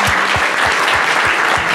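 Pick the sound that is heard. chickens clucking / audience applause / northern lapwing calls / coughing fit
audience applause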